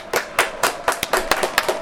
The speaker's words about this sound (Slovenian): Ploskamo.